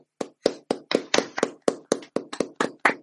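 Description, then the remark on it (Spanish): A short burst of hand clapping for a departing expert guest on the Spanish-language show La nave del misterio: about fourteen sharp, crisp claps in a quick, slightly uneven rhythm, fairly loud, with no talking. “Aplauso. Aplaudí, gente, hombre, no hay así.”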